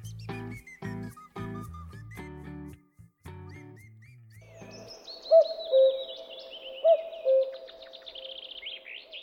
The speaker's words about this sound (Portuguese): Olá, você está ouvindo o Cash, ao toque de dois cucos